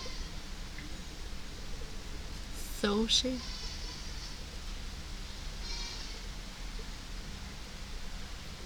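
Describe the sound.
A steady, even hiss of rain falls throughout, soft and constant without any break. Partway through, a person briefly speaks a couple of words over it.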